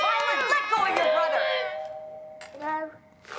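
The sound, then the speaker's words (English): A doorbell chime rings out, its tone lingering and fading for a second or two, amid loud overlapping voices and a brief burst of commotion afterward. “Hello? Get the door!”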